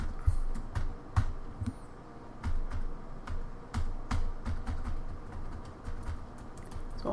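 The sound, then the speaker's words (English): Laptop keys, including the function keys, are pressed one at a time on a laptop showing a blue screen, a series of crisp clicks in an uneven rhythm over a low background hum, with no voices. “Function function keys aren't working.”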